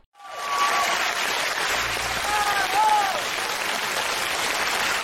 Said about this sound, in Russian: Тут аплодисменты.